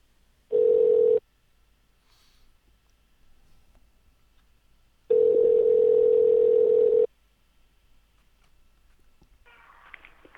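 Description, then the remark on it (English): A telephone tone sounds twice while a call is placed again after the line cut out: a short steady mid-pitched beep, a pause, then a longer loud burst of the same tone, with no one speaking. “It seemed to be just when we called him.”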